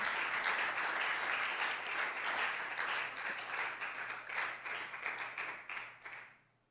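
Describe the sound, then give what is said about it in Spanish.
A church audience applauds steadily to praise the Lord, a dense wash of many hands clapping at once, sustained for several seconds before tapering off quickly at the end. “Give hermano. a great applause to the Lord.”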